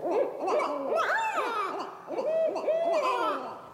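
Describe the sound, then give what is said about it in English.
A female barred owl calls out to other owls in a rapid series of wavering, rising-and-falling hoots that overlap one another, loud, with no talking. “that is a female barred owl she's calling out to other owls, saying something like, Hey, buddy, where are you?”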